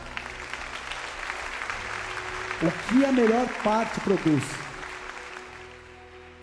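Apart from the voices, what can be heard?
audience applauding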